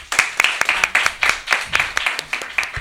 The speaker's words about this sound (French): Ceux qui sont euh, pour vrai, applaudissez. Personne ne vote. Et ceux qui sont pour faux, applaudissez.